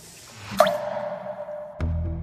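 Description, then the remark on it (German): A single tear drips from a chin onto a phone display held in a hand, landing with a crisp plop, followed by a short resonant ring that fades slowly. A duller knock comes a moment later over a quiet background. “Eine Träne fließt über Hannas Wange, vorbei an ihrem Mund und tropft vom Kinn auf das Handy-Display in ihrer Hand.”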